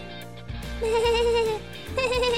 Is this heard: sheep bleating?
yes